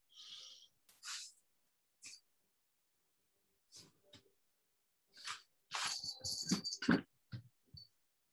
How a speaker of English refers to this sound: you hear background noise, it's because the cats are fighting.